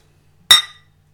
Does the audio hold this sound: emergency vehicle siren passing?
no